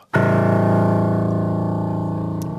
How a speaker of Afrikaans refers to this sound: Ja, dis die laagste noot en die hoogste noot van 'n C4 oktawe op tot eh, 'n C ses oktawe af en dan nog twee af die laagste A.